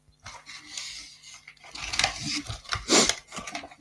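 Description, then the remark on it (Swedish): Crinkly rustling of a candy wrapper in irregular bursts as someone eats candy on a Saturday morning, with a louder crackle toward the end, mixed with faint chewing and handling noises. No one speaks. “Och ja, det prasslar.”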